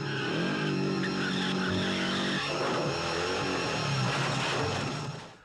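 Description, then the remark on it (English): A loud motorcycle engine roars and revs steadily, then shifts midway into rough skidding and scraping tire noise as the motorcycle wrecks, set off by a station wagon, with no talking. “Every action, including the ridiculous motorcycle wreck set off by this bumbling dad. never sold the station wagon.”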